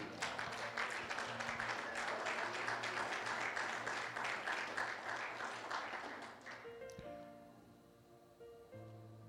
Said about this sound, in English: Clap your hands and give him the praise.